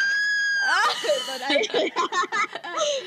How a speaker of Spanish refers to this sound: Trigger warning, gritos.